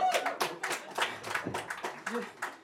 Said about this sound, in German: Dafür will ich gar keinen Applaus, das macht mir immer ein bisschen Angst.